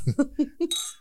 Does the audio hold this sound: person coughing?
no